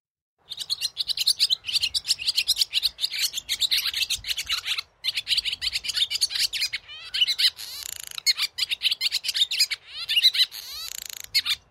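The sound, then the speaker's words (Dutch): A barn swallow sings a rapid, continuous twittering song of chirps, buzzy rattles and warbles, fairly loud, running in bursts with brief pauses and no talking, on the Staveren estate on the Veluwe, Netherlands, in summer. “Daarom heb ik deze keer met hem afgesproken op landgoed Staveren op de Veluwe om te luisteren naar zijn verhaal achter het geluid van de boerenzwaluw.”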